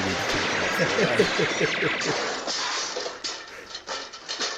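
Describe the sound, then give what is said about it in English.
Several sharp gunshots crack out over a dense, noisy mix of rumbling and muffled voices, with the shots growing more frequent and distinct toward the end. “Way worse than these gunshots.”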